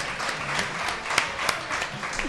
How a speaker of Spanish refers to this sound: Se lanza, se lanza el público al aplauso.